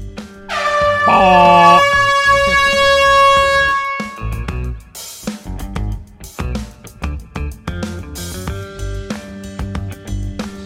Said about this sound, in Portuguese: E pode soar a buzina que esse episódio já está começando.